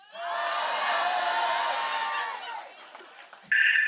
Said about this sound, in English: Do you want to say hi to the crowd? Uh, everyone say hi.